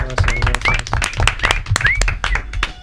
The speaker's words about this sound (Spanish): Pues un aplauso.